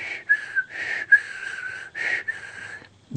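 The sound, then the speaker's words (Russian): A man whistles in several sustained, wavering phrases with short breaths between them, fairly loud and alone, fading out near the end. “уже начал, думает, ладно, вроде как свистеть учили, чтобы не храпел человек. Начал свистеть.”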